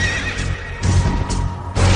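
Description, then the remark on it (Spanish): A horse neighs loudly, a shrill, wavering whinny that rises and falls in several bursts over about two seconds, with no voices present. “Y vi aparecer un caballo pajizo, cuyo jinete se llamaba Muerte.”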